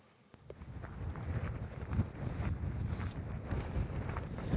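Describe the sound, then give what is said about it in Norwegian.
Steady gusting cold wind at eight degrees buffets the microphone with a low, rumbling roar, continuous and fairly loud outdoors at Hjerkinn on Dovre, Norway, where pilgrims have gathered, with faint scuffing sounds mixed into the blustery noise. “Det er åtte grader og sur vind for pilegrimene som er kommet til Hjerkinn på Dovre.”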